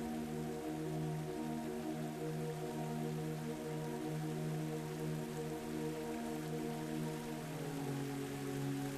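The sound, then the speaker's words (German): Steady, gentle splashing and trickling of giant water fountains shooting into the air, among large water basins and lawns, a continuous soft patter with a faint low hum underneath, heard not far away, with no voices. “Ein leises Plätschern durchzieht die Stille.”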